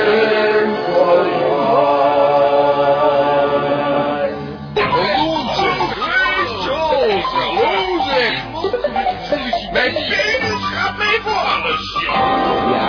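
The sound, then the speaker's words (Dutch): A radio jingle opens with sustained, bright musical chords, then shifts into lively, sing-song voices over backing music, loud throughout. “Nou, eh, die ga ik even die eh, prachtige jingle van hem zoeken.”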